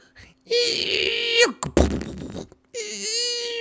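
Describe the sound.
A voice mimics an ice cube machine that keeps making cubes and dropping them into a compartment, heard every morning on waking: a sustained droning hum, then a noisy rattling burst like cubes dropping, then the humming drone starts again.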